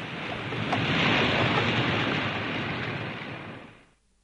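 Steady roar of sea waves washing continuously, fairly loud, with a windy hiss, swelling slightly before fading out at the end. No voices.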